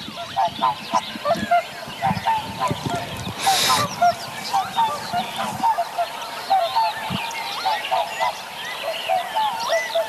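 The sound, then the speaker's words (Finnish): Swans call repeatedly in flight on the far side of a field in the morning, a chorus of honking, bugling notes, with a brief burst of noise partway through. “Sitten jossain vaiheessa aamua joutsenet lensi tuolla ihan pellon toisella puolella, mutta tosi hyvin myös tämä mikrofoni sai napattua niiden ääneen.”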